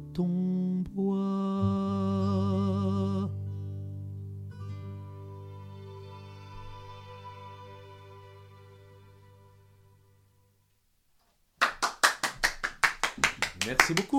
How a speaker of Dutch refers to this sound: Het is maar één klapje wat je hoort natuurlijk, want we zijn maar met z'n tweetjes.